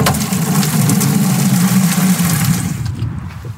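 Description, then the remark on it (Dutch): A steady rush of water pours loudly from a tap, with a low rumbling undertone that continues evenly before easing slightly at the end. “Er is water.”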